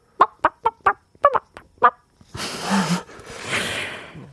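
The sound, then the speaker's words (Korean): A person does a vocal impression of a chicken with about seven short, sharp clucks in quick succession, clear, followed by a couple of seconds of breathy, rushing noise. “성대모사 뭐 되는 거 있어요? 닭소리 한번 들어보시겠어요?”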